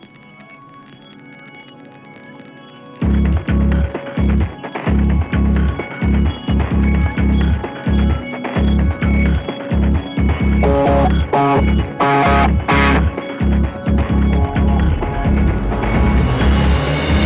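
An instrumental song intro: a few seconds of soft sustained tones, then a loud, steady drum beat and full backing band kick in together, with no singing.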